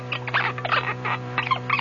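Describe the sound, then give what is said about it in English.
A capuchin monkey named Chi Chi squeaks and chatters in quick, high-pitched bursts, fairly loud, over a steady low electrical hum with no talking. “Those Capuchin monkeys. They want to imitate every new thing they see.”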